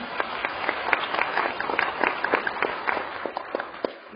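A crowd at a training course held in a five-star hotel applauds the company steadily for about four seconds, many hands clapping in a dense, uneven patter with sharper individual claps popping out, no voices over it.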